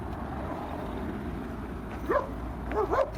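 Many dogs bark a few times in short bursts, one yelp followed by a quick pair of barks near the end, over a steady low rumbling background noise.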